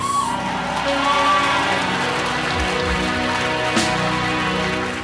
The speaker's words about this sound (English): Those who are clapping have already got a revelation.